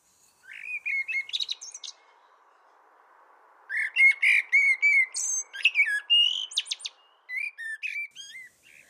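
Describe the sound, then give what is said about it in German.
A common blackbird, a songbird 24 to 27 cm long, sings in two bursts of varied, fluting warbled phrases with high twittering notes, clear, with a short pause between them and no voices. “Also die Amsel ist ein 24 bis 27 cm großer Singvogel, der einen ausgeprägten Geschlechtsdimorphismus hat.”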